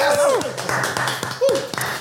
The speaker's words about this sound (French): Et on peut applaudir, ça fait du bruit